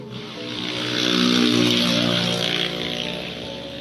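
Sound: motorcycle engine passing outside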